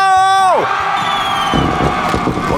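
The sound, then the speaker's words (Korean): A crowd cheers and shouts loudly in answer to a call for ten-year-olds across the country to scream during birthday greetings, opening with a high whooping cry that slides down in pitch before merging into a steady wash of yelling and applause-like noise. “전국의 10살 소리 질러”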